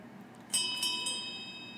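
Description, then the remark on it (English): A small last call bell rings out with three quick strikes in succession, its clear metallic tone lingering and slowly fading afterward against a quiet background, with no one talking. “Well, I hear the last call bell.”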